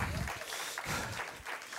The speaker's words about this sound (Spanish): Denle un aplauso a Cristo aunque no le guste.